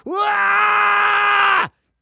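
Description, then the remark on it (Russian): A singer bellows a single loud, sustained note held for about a second and a half, strained and bright, rising at the start and cut off abruptly, with no other voices or sounds around it. “прорал ноту, Класс.”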